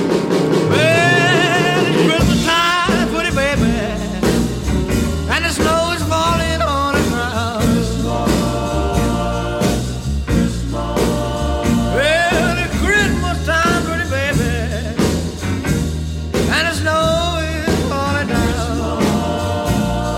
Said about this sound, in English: It's just a simple band, upright bass, archtop guitar, probably a guy with just a snare and a bass drum.